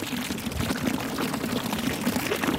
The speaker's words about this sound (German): Sobald dann die richtigen Knöpfe gedruckt sind und alle Leitungen richtig verbunden sind, kann dann der Brunnenmeister das Wasser reinlaufen lassen.